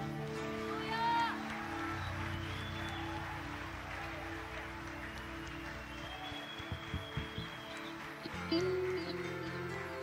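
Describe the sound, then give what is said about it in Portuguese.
A church audience applauds God steadily for several seconds, a dense wash of clapping with scattered cheers, while sustained musical tones hum underneath and a few louder claps stand out near the end. “Se você sente a presença do Senhor nesse lugar, você pode aplaudir a Ele que Ele é digno.”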